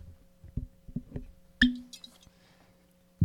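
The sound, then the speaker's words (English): A man pours himself whiskey into a glass: a few soft knocks, a bright clink of glass, then a short, splashy trickle of liquid, all fairly quiet with no talking. “pouring himself some whiskey.”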